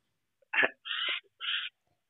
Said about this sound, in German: Was schnauft da eigentlich so? ich versuche mal wirklich einzufangen. Das ist irgendein kleiner Vogel hier. Ich sitze in einem Park. Ah, okay. Na gut, dann ist es halt so. ähm, aber der schnauft?